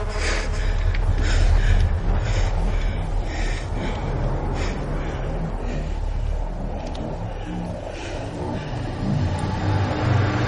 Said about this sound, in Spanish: El coche de Bloomfish recorre una estrecha carretera que cruza el bosque.